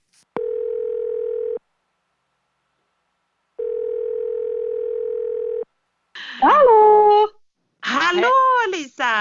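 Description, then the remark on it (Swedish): An outgoing phone call's ringing tone, a call to a person in Thailand: two long, steady electronic tones separated by a silent pause, clear, then a person starts talking over the line. “nu ringer vi …”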